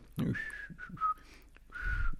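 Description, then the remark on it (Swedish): Someone walking around whistles a short, casual tune, a few sustained notes with brief gaps, clear and moderately loud, with a low thump or breath noise at the start. “man, man går runt och visslar för att visa också, det här är inte en våldtäktsman.”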